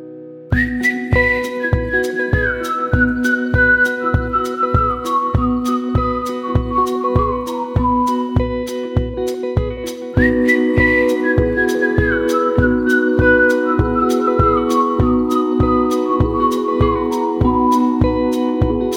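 A whistled melody in a folk band's song glides downward in stepped phrases over a steady, evenly pulsing beat and sustained chords, restarting at a higher pitch partway through; loud and tuneful with no voices.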